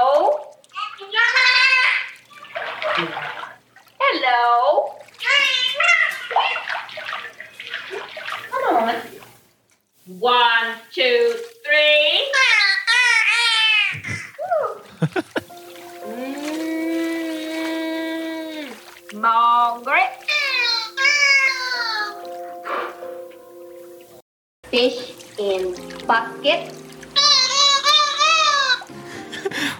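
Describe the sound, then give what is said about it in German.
A dolphin underwater produces high, squeaky, warbling calls in speech-like bursts, imitating the rhythm of human talk, with a muffled, watery quality throughout and brief pauses between phrases. “Es ist jetzt kein englisches Wort, was der Delfin da sagt.”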